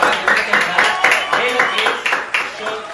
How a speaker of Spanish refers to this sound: recibiendo acá con nosotros, un aplauso por favor